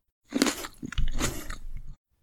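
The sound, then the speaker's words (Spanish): Wet, crunchy chewing of grapes, with a few quick bites followed by a longer stretch of steady mastication, moderately loud and with no talking over it. “Me encanta comer uvas.”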